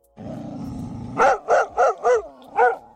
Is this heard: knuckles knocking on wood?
no